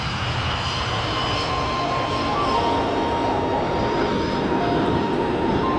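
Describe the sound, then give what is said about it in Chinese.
An airplane taxis, accelerates and climbs into the sky, its engines roaring loudly and steadily, a dense rumbling wash with a thin whining tone threaded through it. The noise holds at an even level throughout, with no voices. “飞机滑行、加速、拉升、直插苍穹。”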